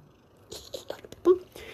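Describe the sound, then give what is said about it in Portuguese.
A cat named Pepão purrs while being petted, a low, steady rumble broken by soft scratchy rustling and a brief louder tonal note near the end. “Escute, escute o pepão ronrando.”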